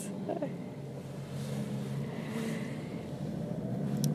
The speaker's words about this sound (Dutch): Is het iets ehm, even een camion die hier de straat oversteekt. ik ga even wachten tot het verkeer veilig is.